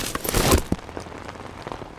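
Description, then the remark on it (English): Rain spatters onto a hard surface in a dense, hissing burst, then thins into scattered taps and crackling drips, with no voices present. “Some things are made to cope with puddles and rain”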